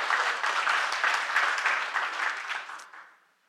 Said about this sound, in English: Yeah, that's right. You can clap. You can get excited about that because that's what we're about.